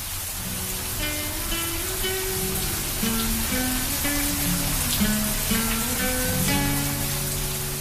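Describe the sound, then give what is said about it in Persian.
Steady rain pours down on a rainy Tuesday in April in a constant, even hiss, while a gentle melodic tune plays over it throughout. No one speaks. “سه شنبه ای بود در ماه آوریل و هوا بارونی”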